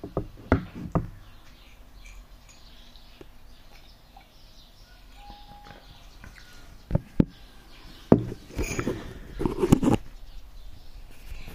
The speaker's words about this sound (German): Vögelgezwitscher am Morgen, das entspannt doch.